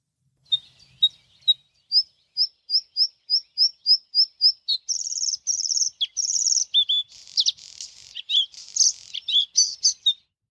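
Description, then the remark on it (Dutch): A bluethroat sings alone and clear: a run of sharp, evenly repeated high notes that speeds up, then breaks into a varied stretch of buzzy, ringing and twittering phrases. “wat horen we hier eigenlijk? De blauwborst.”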